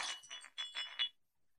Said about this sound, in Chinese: 似乎打破了一个青色的瓶子， 花瓶，花瓶。